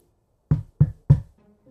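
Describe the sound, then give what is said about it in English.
Three firm knocks on a wooden door, evenly spaced, each a sharp thud with a brief resonant ring, followed by quiet. “in the chamber that you are prepping inside, someone is knocking on the door.”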